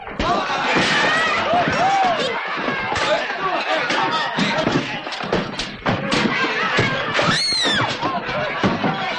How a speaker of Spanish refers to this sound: Mientras en el salón la gente sigue peleando.